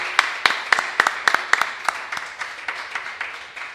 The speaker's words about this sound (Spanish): Bueno, un aplauso y de verdad, eh, romper las manos para despedir al señor